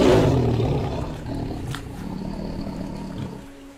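A deep, growling roar rumbles, loudest at the start and then holding as a steady, throaty snarl for several seconds with no voices present.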